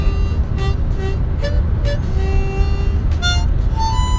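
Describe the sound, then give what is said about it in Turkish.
A steady, loud low rumble of road noise fills the inside of a moving car, constant throughout, with faint thin tonal sounds flickering above it. “Araba kullandığım için notalara bakamayacağım şimdi.”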